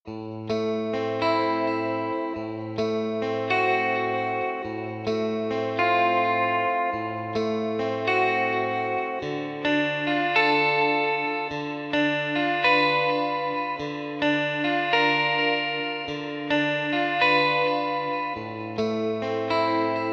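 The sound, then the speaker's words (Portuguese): A sustained electronic keyboard plays chords over a steady bass line, its tones wavering with a strong, wobbling vibrato and chorus-like shimmer, continuous and fairly loud with no voices. “Então eu utilizei em alguns momentos para aliviar a tensão rítmica uma guitarra com um vibrato bem intenso é, para dar essa aliviada e ao mesmo tempo, ó, algo vai acontecer.”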